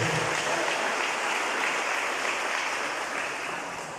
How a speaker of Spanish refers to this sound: Den un aplauso a Cristo Jesús, por favor, en esta noche.